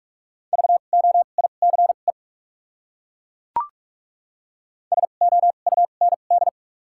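Rapid Morse code beeps with doubled character spacing in a steady high-pitched tone, two bursts of quick dots and dashes at about 45 words per minute, separated by a pause with a single sharp click in between.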